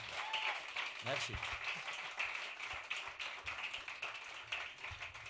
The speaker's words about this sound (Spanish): Fuerte aplauso, por favor, a estos dos pedazos de ah, músicos.